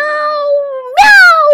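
A human voice imitates a cat's meow: one drawn-out, steady-pitched wail that suddenly jumps higher and louder partway through, then holds and slowly rises, with no other sounds.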